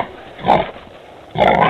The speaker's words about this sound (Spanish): Pero al momento que ya comienzan a acercarse a esta casa, que es una casa, de una granja, es como si fuese un, granero, lo primero que empiezan a escuchar es el ruido de los cerdos. Se escuchan graznidos de cerdos.